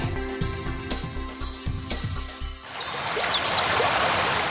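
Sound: waterfall flowing water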